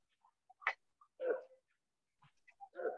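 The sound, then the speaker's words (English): A dog barks two or three times with short pauses between, the barks fairly quiet, with a few faint clicks and small noises in between and no one talking. “Uh, my little furry companion has a friend down the street, and then the other friend that lives with this other dog just kind of sits there and barks all monotone.”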